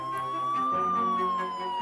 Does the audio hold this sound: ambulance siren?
yes